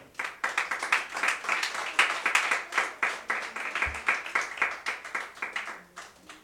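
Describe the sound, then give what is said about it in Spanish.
A church audience claps hands continuously during a sermon as an offering of applause to the Lord. It is a dense wash of overlapping claps with a loose, fast rhythm, steady in loudness throughout and fairly loud, with no talking. “Dile ofrenda de palmas al Señor.”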